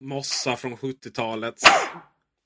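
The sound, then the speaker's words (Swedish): A person talks briefly, then a single sharp sneeze bursts out right after the speech, followed by silence. “ja, prosit.”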